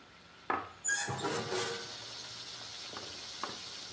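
Pots and pans clank and clatter in a few sharp knocks as a mother cooks lunch, with a steady sizzling hiss underneath, like cooking on a stove. No one speaks.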